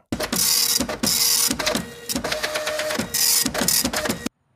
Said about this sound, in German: Das war also der Drucker, der druckt bei uns im Schlaulichtstudio.